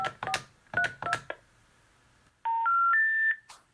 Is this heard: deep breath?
no